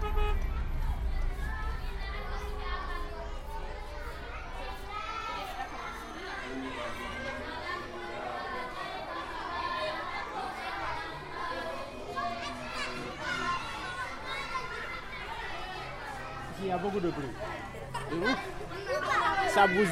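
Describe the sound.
Children chatter and shout while playing, a dense, lively babble of young voices that continues steadily throughout, with occasional higher cries rising above the mix.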